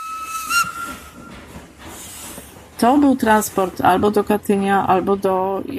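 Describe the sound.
A steam freight train's whistle blows for about a second, followed by a loud rush of hissing steam; then a person starts speaking over faint lingering hiss.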